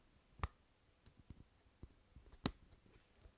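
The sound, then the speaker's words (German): Soft popping from a pop-it fidget toy, fairly quiet: two sharper pops stand out among a scattering of fainter, irregular clicks, with no one talking. “Die Poppets sind blöd. Folgt mir gerne. Ja, aber ich plopp gerade immer noch. Vielleicht hört man's.”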